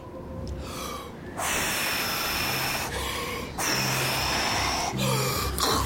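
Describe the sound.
Several people blow hard and long into the air, a series of loud, breathy whooshing gusts imitating the wind in a telling of the Noah's ark story, with brief pauses between the blasts, strong throughout.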